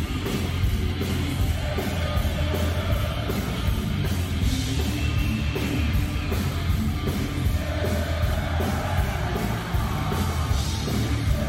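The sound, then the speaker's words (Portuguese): A huge festival concert crowd, at Hellfest in France or Graspop in Belgium, cheering in a dense, steady roar that holds loud for over ten seconds, with scattered yells and whoops rising out of the mass of voices. “Olha o mar de gente, a multidão.”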